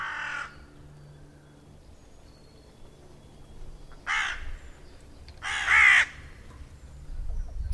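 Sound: hooded crow cawing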